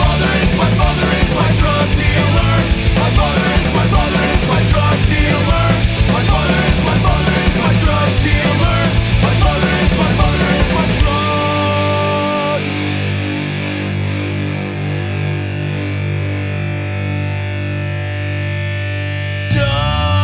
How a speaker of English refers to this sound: Great song to play since yesterday was Mother's Day.